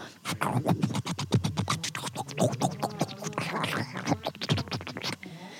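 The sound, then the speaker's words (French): A voice imitates someone brushing their teeth: quick, rhythmic scrubbing strokes, fairly loud, repeating steadily for several seconds before trailing off. “Euh, je déteste aussi euh, le son de, de quelqu'un qui se brosse les dents.”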